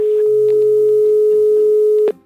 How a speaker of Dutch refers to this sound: Je begint met bellen, je hoort een, uh, je hoort een kiestoon. Dat eh, nummer één is de kiestoon van hé. Hey. En dat is een continue piep.